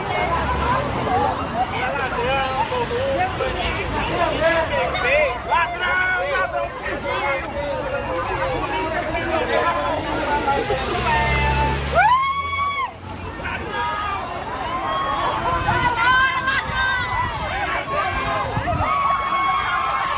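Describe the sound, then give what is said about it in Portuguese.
A large outdoor crowd in Teresina, Piauí, Brazil, shouts "ladrão" (thief) and jeers loudly and continuously at Lula's motorcade passing at high speed on its way to the airport, many voices overlapping, with a brief rising whistle-like tone cutting through midway. “Lula é recebido aos gritos de "ladrão" em Teresina, no Piauí.”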